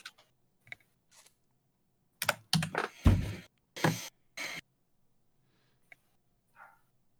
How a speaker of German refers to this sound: Wuff, man hört, ein, man hört ein leises Bellen im Hintergrund.